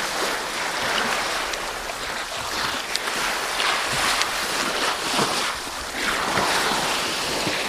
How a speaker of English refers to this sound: did a few quick checks and realised no, that's exactly what I'm hearing and it was the sound of the ocean. There was a bit of a swell, and it was the sound of the ocean lapping against the side um, of this iceberg.